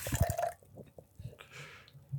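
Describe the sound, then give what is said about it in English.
A short burst of running, splashing water as a glass is rinsed out, then a few scattered drips and small clinks as the flow stops. Fairly quiet, with no one talking. “Just rinsing out my.”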